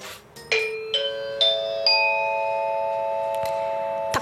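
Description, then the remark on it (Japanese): A four-note public address broadcast chime introducing the town weather information rings out clearly, each bright tone striking about half a second apart and stacking into a long, sustained shimmer that hangs and slowly fades, with no voices. “時間が25分になってましたということで気象情報をお伝えしようかと思いますえー、っと放送チャイムゴン”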